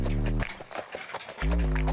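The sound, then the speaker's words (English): A brief run of horse hooves clip-clopping in a quick, steady rhythm, a horse pulling a buggy on Carrie's 25-mile trip to Kiowa on June 6, 1900, set between sustained musical tones at the start and end. “On June 6, 1900, Carrie set off on the 25 mile horse and buggy trip to Kiowa”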